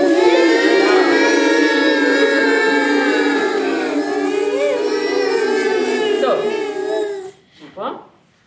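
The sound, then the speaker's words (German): A group of children hum and buzz loudly together in a sustained drone, imitating a bee swarm for a picture story, as loud as 8962 bees, for several seconds before the sound cuts off abruptly. “Am Ende der Bildergeschichte finden sie natürlich Bos Nestgenossinnen, denn die Kinder wissen ganz genau, wie sich der Bienenschwarm anhört. So laut wie 8962 Bienen.”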